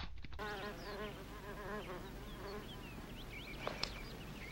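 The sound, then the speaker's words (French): A housefly buzzes, its whining drone wavering up and down in pitch as it darts around, fading somewhat toward the end over a steady low background hum. “Avec une tapette, ce serait plus facile Homme qui attrape mouche avec des baguettes est homme qui réussit tout.”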